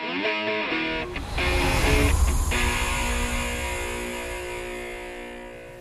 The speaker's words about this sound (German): Und wir sind jetzt auf dem Rückweg vom Volkspark hier direkt einfach in eine Autowaschanlage reingefahren.